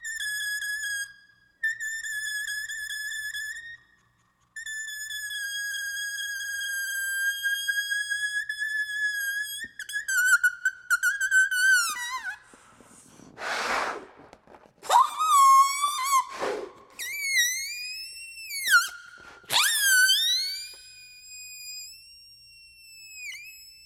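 A balloon played as a musical instrument, with sustained high squealing tones, held notes then rapid swoops, bends and sharp squeaks, loud and alone with no talking.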